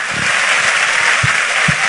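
A church audience applauding the Lord loudly, a dense, steady wash of many hands clapping with a few heavier low thumps standing out near the end, no voices audible above it.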